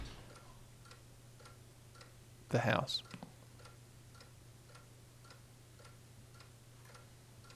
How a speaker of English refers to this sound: Okay, I can hear in the room to my right there's a ticking clock.